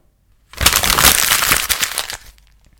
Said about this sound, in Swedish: Fast det här ljudet när man skrynklar papper är ju också ganska bra, så om vi ändå har det då.